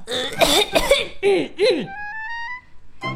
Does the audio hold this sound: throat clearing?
yes